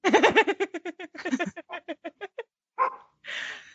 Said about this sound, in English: But she, my dog is barking because she's singing along with me.